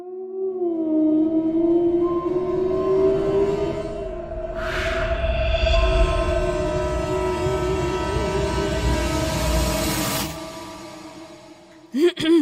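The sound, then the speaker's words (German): An eerie horror-style intro: sustained droning tones and a wavering, siren-like wail over a low rumble, swelling with a hiss midway before cutting off abruptly, followed by a few short clicks. “Ähm, und um uns wieder richtig in Stimmung zu bringen, hört ihr nun ein Grusel-Intro.”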